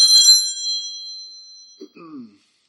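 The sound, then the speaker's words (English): A phone notification chime during a sermon: one bright ding that rings out and fades over about a second, followed by a short, low murmur from a voice. “I heard a, a buzz earlier uh, in the uh, sermon, a little click of my phone.”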